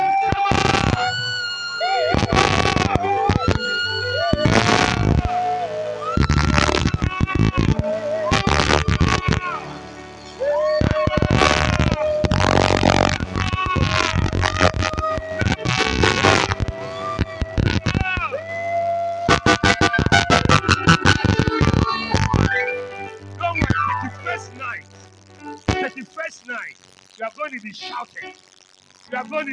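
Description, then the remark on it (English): An audience erupts in loud, sustained cheering and shouting with sharp bursts of clapping throughout, giving their loudest shout of 2021 in praise of God. Voices rise and fall over a steady low hum before the noise thins out near the end. “I want you to one, I want you to clap your hands and give another the loudest shout you have given in 2021.”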